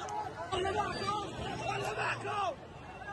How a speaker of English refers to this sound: If you can't see this, this is enormous crowds of people cheering and celebrating, excited at the slaughter of civilians and the kidnapping of other civilians.